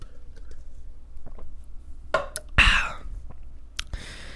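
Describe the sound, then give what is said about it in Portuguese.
A person drinking water: a few soft clicks and handling noises, then a short burst of sipping and swallowing followed by a breathy exhale, with no talking. “Deixa eu tomar mais uma água aqui.”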